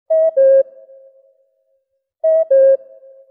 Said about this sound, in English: That cuckoo is a good example. Radio Slovenia has aired this sound to mark the top of the hour